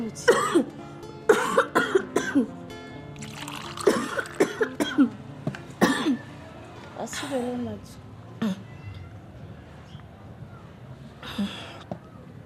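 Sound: person coughing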